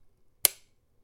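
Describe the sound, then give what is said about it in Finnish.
A single sharp mechanical click with a bright metallic snap from the shutter of a folding camera with a Nettar lens, isolated, decaying quickly into silence. “Se ja kuul- on kuulostaakin oikein... hyvältä, kun se laittaakin, se kuulostaa tältä.”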